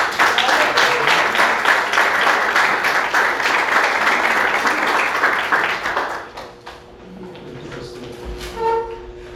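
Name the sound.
audience applauding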